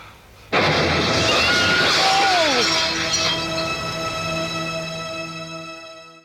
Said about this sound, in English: And then, like, kaboom, the window shatters.